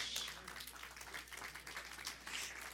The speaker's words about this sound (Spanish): Los que están aplaudiendo son los casados.